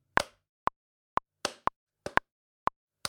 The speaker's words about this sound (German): mach's Metronom an, lass diesen Klick laufen und dann versuch erstmal einfach zu diesem Klick, ich weiß nicht, ob das jetzt hier synchron ist, das ist die Verbindung.